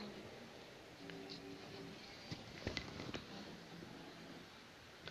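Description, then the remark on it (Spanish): Heavy rain pours steadily, a faint continuous hiss dotted with a few sharper drip taps, with a low hum beneath it and no one speaking. “perdón, pero es la lluvia. Justo hoy, grabando el primer episodio, se cae el cielo.”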